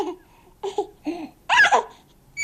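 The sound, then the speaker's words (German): A small baby babbling in a series of short, high-pitched vocal bursts with brief pauses between them, fairly clear, with no adult speech. “Dazu gehören Beobachtungen an Affen, an kleinen Babys”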